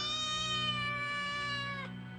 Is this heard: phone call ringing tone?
no